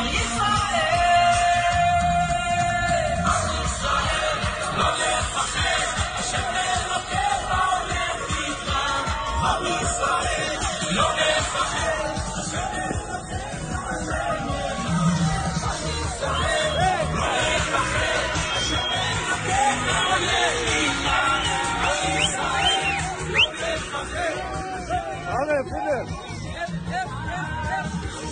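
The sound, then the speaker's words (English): A lively crowd cheers and shouts over loud, steady music as the Breslov truck shows up to dance with soldiers, handing out the Tikkun Klali; the dense wash of voices and song continues without a break for the whole stretch. “I mean, the the the Breslov truck shows up and and there's just total energy and and they're handing out the Tikkun Klali and they're dancing and they're an- dancing to a song”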